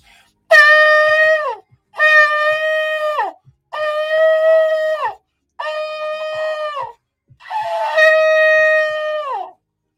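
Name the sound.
shofar being blown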